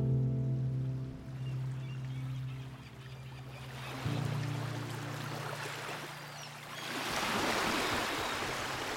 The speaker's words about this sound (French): Le bruit d'une mouette, les bateaux, le clapotis des vagues sur la coque. Aujourd'hui encore, ce sont des sons et des images qui sont profondément ancrés au plus profond de mon être. Je ne les supporte pas.